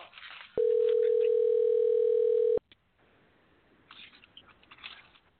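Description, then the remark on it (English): A loud, steady electronic telephone tone rings through during a call for about two seconds, a single unbroken beep that cuts off abruptly, followed by faint rustling and background noise. “Uh oh, he can turn the phone down anytime. Sorry about that if that uh rung through.”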